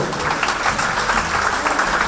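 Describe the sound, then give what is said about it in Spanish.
A crowd applauds for the monkey, clapping steadily for about two seconds, a dense, continuous patter of many hands, with no voices standing out above it. “Un aplauso para el mono.”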